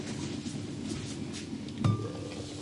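A pot lid lifts with a single metallic clink and a short ringing tone, set against a steady low hiss of background noise.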